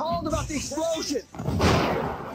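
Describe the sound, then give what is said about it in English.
Indistinct voices at a car accident scene give way to a sudden, loud explosion about halfway through, a broad roaring blast that keeps rumbling and hissing until the end. “There we go loud explosion, loud noise.”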